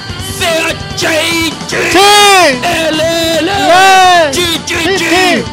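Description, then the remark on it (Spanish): A loud group of voices chants the Chilean cheer 'Chi-Chi-Chi, Le-Le-Le' in rhythmic, drawn-out syllables, rising and falling in unison like a sports cheer, with crowd noise underneath throughout, in the early morning. “Señoras y señores, que el CHI se escuche fue fuerte esta madrugada, que el CHI lo grite todo Sudamérica”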